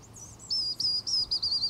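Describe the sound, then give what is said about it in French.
A person whistles an imitation of a Eurasian bullfinch, a small bird with a sad-sounding whistle: a quick run of about five short, plaintive high notes, clear, with no talking. “J'appelle le bouvreuil pivoine, c'est un petit oiseau qui a un sifflement un peu triste, même pas dingue en virtuosité, mais l'oiseau est très très joli.”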